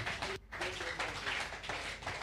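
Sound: audience clapping hands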